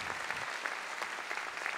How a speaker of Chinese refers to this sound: 我们拍手吧，然后给我们的耶和华神。